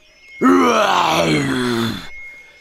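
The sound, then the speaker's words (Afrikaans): A person imitates a lion's roar: one loud, drawn-out, growling vocal roar lasting over a second, sliding gradually lower in pitch before cutting off, with no other talk. “Elke enkele dier hoor die magtige gebrul van die leeu”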